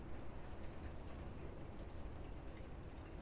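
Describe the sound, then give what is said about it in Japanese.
Steady rain mixed with sleet-like ice falls outside during a thunderstorm, a soft continuous hiss with a low rumbling undertone and faint scattered patter, with no voices. “はいまあこんなことも珍しいので今日は雨をバックグラウンドにお話できたらいいかなと思います。”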